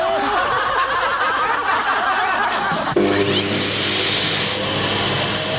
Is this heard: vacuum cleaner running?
yes